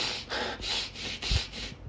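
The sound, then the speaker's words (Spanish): A voice imitates a rabbi breathing deeply and rapidly on Yom Kippur: about six quick, evenly paced, airy huffs in a row, moderately loud, with no speech. “respirando así profundo, rápido.”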